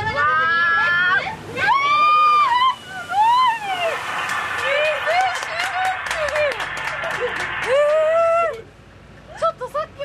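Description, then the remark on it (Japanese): An amphibious bus that has been driving through forest splashes into Lake Yamanaka with a broad, rushing wash of water lasting several seconds, while a crowd of passengers shrieks and cheers excitedly throughout. “いや今ずっと森林のバスを運転してきて、はい、一気にこう山中湖の中に入っていく、はい、不思議な感覚ですね”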